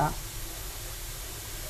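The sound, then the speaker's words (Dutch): A kitchen extractor hood fan is switched on and runs with a steady, airy whoosh and low hum, fairly quiet and constant throughout, with a brief snippet of a voice right at the start. “Ik ga de afzuiger aanzetten.”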